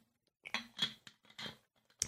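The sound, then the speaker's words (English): Someone sips water from a small bottle: a handful of short, wet gulping and mouth sounds in an irregular rhythm, fairly quiet, with no talking. “I might see if I've got any water left in my little bottle here.”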